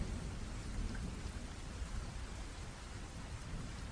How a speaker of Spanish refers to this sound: Detrás de los cristales llueve y llueve. Sobre los chopos medio deshojados, sobre los pardos tejados, sobre los campos llueve.